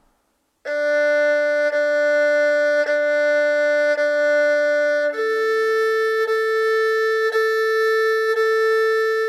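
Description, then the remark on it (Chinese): An erhu demonstrating a solid, pleasant tone plays two long, sustained bowed notes with a full, steady tone, the second lower than the first, with faint pulses at each bow change and no talking. “请听声音结实悦耳。”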